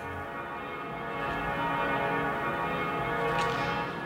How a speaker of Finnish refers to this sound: Pyhän Tapanin tuomiokirkon kellot soi täällä Budapestin keskustassa – Kello on nyt kuusi illalla